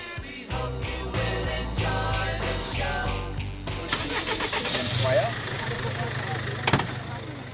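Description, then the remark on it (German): The engine of a large, brightly painted tour bus cranks and catches early on as the bus sets off at 10 in the morning, then settles into a steady, low, rumbling idle, with indistinct voices and street bustle in the background. “Nach dem Ende der Covid-19-Beschränkung setzt sich wieder jeden Morgen um 10 Uhr der bunt lackierte Bus in Bewegung.”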